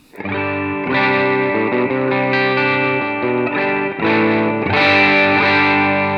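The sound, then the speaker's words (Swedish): A distorted electric guitar strums sustained chords for about six seconds, loud, with thick buzzing harmonics and a slight chorus shimmer, changing chords a few times with no talking. “Och alltså den kommer fram mer med, med dist, det är ja.”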